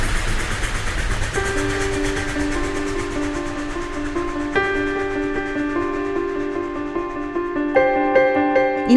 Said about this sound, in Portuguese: está sentada no bar do comboio. Origem, Santa Apolónia. Destino, Porto Campanhã.